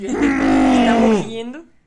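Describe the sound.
A voice imitates a woman's long, bellowing moan, a sustained low-pitched groan held steady for over a second before sliding upward and trailing off.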